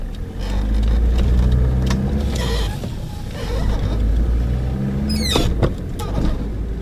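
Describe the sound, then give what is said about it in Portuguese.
A car carrying a DVD player and a projector in its trunk drives along a road to a primary school in Paços de Ferreira, a steady, loud low rumble of engine and tire noise that continues throughout, with a brief higher-pitched squeak near the end. “Ao contrário do que acontecia antes, na mala do carro está apenas um leitor de DVDs e um projetor.”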